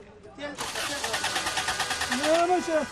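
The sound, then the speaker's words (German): A taxi's engine cranks over and over without catching, a loud, fast rhythmic churning that keeps going for a couple of seconds, with a voice briefly speaking over the end. “Das Auto will nicht mehr.”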